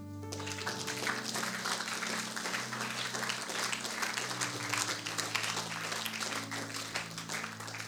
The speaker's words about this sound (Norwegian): Skal vi gi en applaus til Gud?